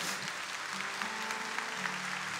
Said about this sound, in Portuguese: Fique de pé, você que está aqui no rincão, em nome do Senhor. Aplauda Jesus, Maria e José.